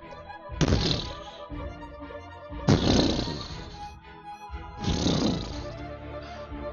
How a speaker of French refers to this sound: Puis vous entendez le bruit de bois qui craque.